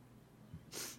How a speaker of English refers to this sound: Hold on, I have to sneeze.